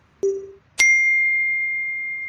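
A cell phone notification ding: a short, soft low blip followed by a bright, clear high chime that rings on steadily for over a second, heard alone.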